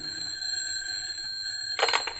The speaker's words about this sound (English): Then, when the phone rings, he fairly leaps across the room to answer it.